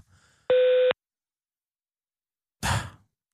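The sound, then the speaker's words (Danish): A single steady electronic voicemail answering machine beep tone lasting under half a second, loud and clean, followed after a pause by a heavy exhaled sigh. “Læg en besked efter tonen.”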